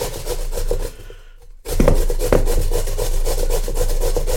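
Steady, rasping scrapes of peeled, washed potatoes being grated into strips on a coarse grater for latkes (potato pancakes), a continuous rough friction noise broken by a brief pause before the grating resumes with a few sharper strokes.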